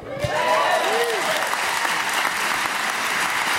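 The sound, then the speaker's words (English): An audience at a Party Down cast panel bursts into loud, steady applause that holds for several seconds, with a few rising whoops or whistles cutting through near the start. “Are you are you just saying that for an applause?”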